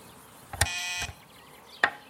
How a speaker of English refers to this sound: That you, Bonnie? Let me buzz you in.